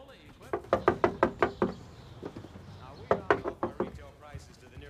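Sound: knocking on a door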